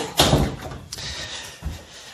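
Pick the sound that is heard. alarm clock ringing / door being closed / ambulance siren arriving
door being closed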